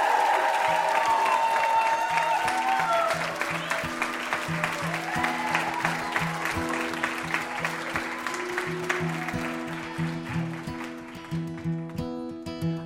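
The studio audience of the show Ask Me Another breaks into loud, dense applause for guest Paul Feig that carries on steadily while an upbeat band tune starts underneath, the clapping thinning out as the music takes over.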